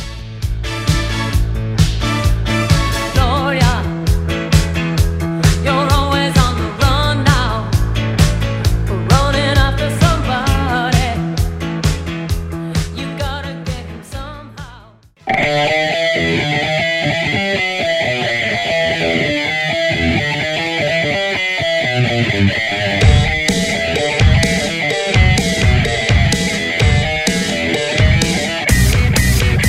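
A loud, upbeat pop song plays with a steady driving beat; halfway through it cuts off abruptly and a brighter, busier song section starts straight away, with no talking.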